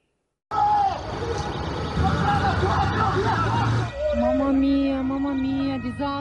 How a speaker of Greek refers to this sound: Φωνές Φωνέ και κλάματα ακούγονται κάτω από τη γέφυρα τη πόλη Μέστρε στη Βενετία.